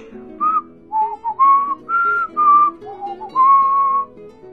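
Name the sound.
whistling a tune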